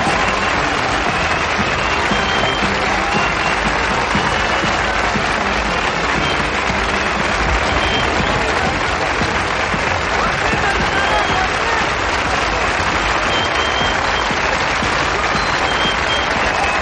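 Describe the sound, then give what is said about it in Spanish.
A large crowd in a bullring applauds continuously and loudly as a bullfighter leaves the ring during the San Fermín festival, dense clapping filling the space for the whole stretch, with scattered cheers and murmurs mixed in. “el torero se retira de la plaza aplaudido por la exaltada multitud.”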